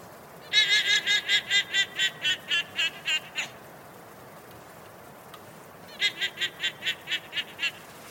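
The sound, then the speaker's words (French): A guanaco herd in the Pampas gives high, bleating calls in two bursts of rapid, evenly pulsed cries: a long run of about a dozen, a pause, then a shorter series. Each cry carries an echoing ring. “Il y avait un troupeau de guanaco et une espèce de résonance à ce moment-là autour de moi il y a un écho qui se fait de, ces cris de cet animal il y a cet enregistrement qui est assez, assez, assez dingue,”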